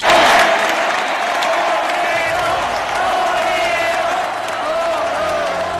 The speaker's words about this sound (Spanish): para volver a aplaudir, cada día con más fuerza